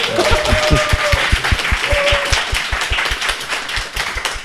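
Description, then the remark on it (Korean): An audience claps together in a quick, steady rhythm, the sharp claps repeating evenly for several seconds, with a few voices and a brief whoop rising over the applause, welcoming four candidates invited to the front. “박수를 한번 다시 합칠까요?”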